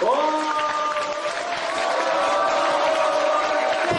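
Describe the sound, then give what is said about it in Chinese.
Steady, dense applause from trainees at a training course, clapping on cue and urged to clap louder and louder, a continuous wash of clapping that holds its loudness for several seconds, with a sustained voice or tone running over it. “一、二、三，好，掌声，好，响起，好，再大些，好，再大些，哇，非常棒，非常好”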